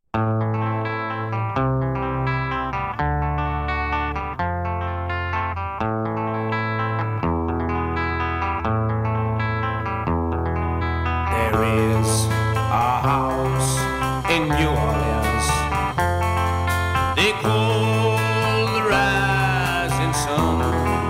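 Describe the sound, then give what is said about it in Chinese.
A rock song recording plays throughout with steady bass notes and effects-laden, distorted guitar; about halfway through the band fills out with brighter cymbals and fuller instrumentation. No one speaks over it. “呃，我们要不要来比较一下， 听一下 原曲是什么？”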